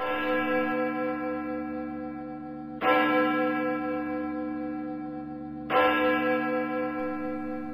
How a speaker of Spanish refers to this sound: Cabizbajo pasó varios días en la torre y los habitantes del reino comentaban sorprendidos que los retoques de la campana se oían tristes y como diciendo un adiós.